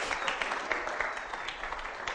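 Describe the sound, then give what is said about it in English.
A round of applause from a crowd for the star as he comes on, many hands clapping in a dense, steady patter that holds at an even, moderate level for about two seconds. “Special round of applause for the star.”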